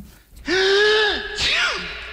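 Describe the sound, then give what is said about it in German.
Two loud sneezes in quick succession, the first longer and the second shorter, each a breathy burst with a voiced cry that slides downward in pitch. “Gesundheit.”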